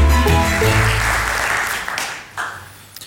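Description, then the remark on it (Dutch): An audience bursts into steady, dense applause that stays loud for a couple of seconds, then thins out and tapers off toward the end. “Applaus gaan eh, we.”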